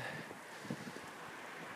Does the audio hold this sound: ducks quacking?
no